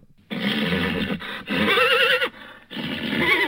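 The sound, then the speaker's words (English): A horse neighs loudly, a long shrill whinny with a quavering, trembling pitch, broken into three bursts by brief pauses, with no talking. “That's horse talk.”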